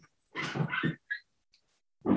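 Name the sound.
small dog barking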